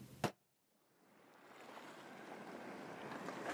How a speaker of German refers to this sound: lass dich hineinfallen, lass dich ähm, führen und verführen von dem Meeresrauschen im Hintergrund.